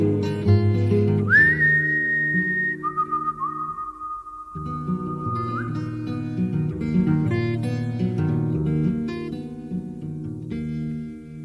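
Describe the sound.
A person whistles to call the wind, a long, sustained note that rises sharply, then glides down and holds steady before lifting briefly, all over a continuous bed of low instrumental music.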